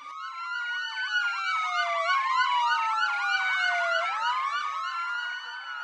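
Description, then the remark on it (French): Several police car sirens blare at once at night, a rapid yelping warble layered over slower rising and falling wails, loud and continuous throughout with no voices. “Une nuit, je me suis réveillée au son des sirènes de voitures de police.”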